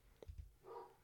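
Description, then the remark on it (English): One of two basset hounds barks once or twice in the background at a home in the woods. The bark is faint and muffled, preceded by a couple of low thumps, with no one talking. “Sorry if you can hear my dog bark in the background.”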